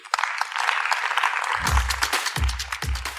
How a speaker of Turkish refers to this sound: Bilge Turcan, Borga Aruta ve Soruhan Ünlü'yü alkışlarınıza sahneye davet ediyorum.